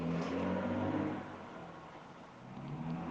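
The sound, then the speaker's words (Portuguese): A noisy car drives past outside, its engine revving loudly at first, then easing off and rising again as another engine hum swells near the end. No voices. “É, toda hora todo mundo passa um carro barulhento”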